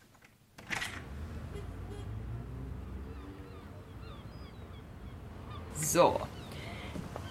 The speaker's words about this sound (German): Ah, warte. Ich mach mal kurz das Fenster auf. Manchmal hört man die Möwen bis hierher.